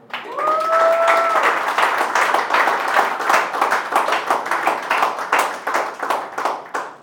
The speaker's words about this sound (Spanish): Dile un fuerte aplauso a Dios.